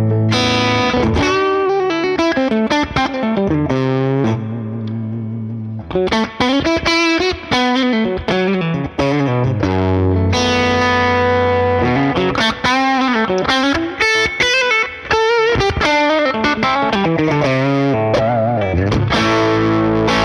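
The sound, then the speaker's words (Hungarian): A heavily distorted electric guitar, played through a tube amp with the gain turned all the way up and the neck pickup turned back a little, plays loud chords and riffs with thick, saturated sustain, the low end sagging and compressing the power stage as notes hit, with brief pauses between phrases. “a végfoknak is egy rottyanása, ott azt, úgy, azt érzem, lehet, hogy csak játék miatt érzem, hogy a, a mélye egy picit hú, hú, így megszívja a végfokot.”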